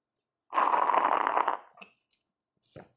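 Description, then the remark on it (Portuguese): A single raspy, gurgling slurp from a chimarrão gourd held right up to a microphone, lasting about a second, like air and liquid sucked through a metal straw at the bottom of the gourd, followed by faint clicks and a brief low rustle. “esse seja o som da abertura, o ronco da cuia de chimarrão.”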